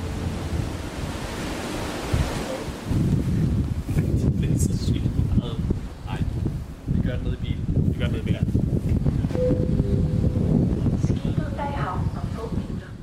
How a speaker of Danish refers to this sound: sidder lige nu i bilen på bildækket ombord på færgen fra Aarhus til Odden.